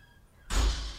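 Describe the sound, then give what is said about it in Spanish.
After a moment of near silence, a door shuts with a sudden heavy thud as people leave, its low boom and rattle lingering briefly. The slam is loud, with no voices. “Ahí va, a la puerta.”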